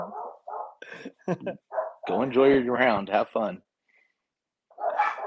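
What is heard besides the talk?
dogs barking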